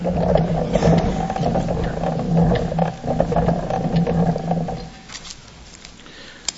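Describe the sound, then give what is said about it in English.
A speaker's motorized podium at a public meeting hums and whirs steadily for about five seconds as its height is adjusted, a loud droning mechanical grind, then stops and leaves quiet room tone behind. “may I ask that you raise your, the podium a bit because I'm having difficulty hearing? You're lowering.”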